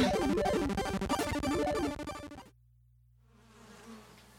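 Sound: wasps buzzing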